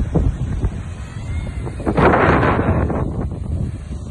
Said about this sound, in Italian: Ma prima di salutarvi voglio farvi vedere un posto speciale. Siamo arrivati nella spiaggia principale.